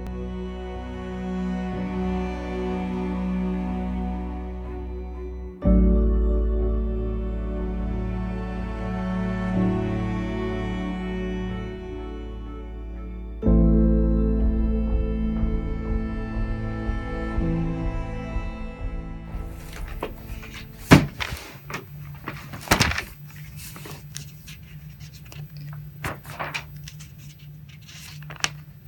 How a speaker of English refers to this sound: And that sound is me doing what I do best flipping through old newspapers.